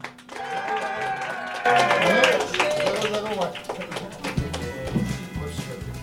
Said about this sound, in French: Donc, euh, mesdames et messieurs, on applaudit le très sympathique euh,